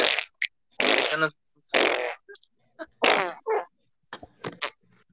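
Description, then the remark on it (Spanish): A series of loud farting noises, several long sputtering bursts followed by shorter pops and squeaks, with no talking. “Ya, ya me cagué. Me cagué en mis pantaloncitos.”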